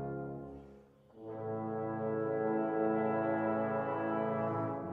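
The second movement, Largo, in D-flat major, of an orchestral symphony: rich, sustained wind and brass chords held low and steady, briefly fading near the first second before swelling into a fuller, sustained chord with no voices.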